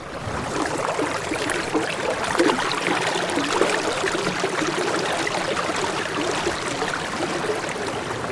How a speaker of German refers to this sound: Jedes dieser Flüsschen klingt anders und zusammen ergibt das eine Art Wassersinfonie. Das ist eine Sinfonie.